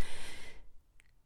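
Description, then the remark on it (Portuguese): A single sharp sniffle, a quick noisy intake of air through the nose that fades out, followed by near silence with a faint small click. “Fungadelas e bebidas de leite”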